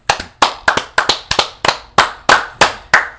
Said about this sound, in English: I have to give a round of applause. You can feel free to join me if you want to. Okay. To Gucci and Adidas for making something worth buying.